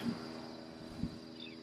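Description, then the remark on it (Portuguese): A fly buzzes steadily, a thin droning hum that swells briefly as it passes near, with no voices. “acumulando paramita para nascer como mosca numa vida futura. Fica voando, fazendo um barulho.”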